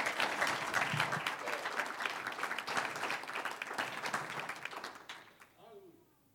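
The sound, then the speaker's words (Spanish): An audience bursts into sustained, dense applause, steady for about five seconds before tapering off, with a faint voice emerging as the clapping fades. “Un aplauso al que vive.”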